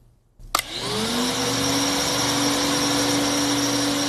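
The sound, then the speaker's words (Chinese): A vacuum cleaner switches on with a click and quickly rises to a steady, loud whirring drone with a high whine, running continuously without any voices. “哈哈哈，小朋友们非常好，速度很快，现在可以用吸尘器了。”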